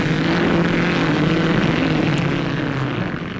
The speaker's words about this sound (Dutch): Zo klonk de eerste Grand Prix in 1948 in Zandvoort.